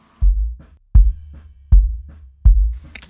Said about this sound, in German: Und den hat mal ein findiger Typ einfach mit einem Mikrofonkabel versehen, vor die Bassdrum gestellt, die große Pappe von dem von von dem Speaker quasi als Mikrofonmembran, dann an einen Preamp angeschlossen und dabei ist das hier rausgekommen.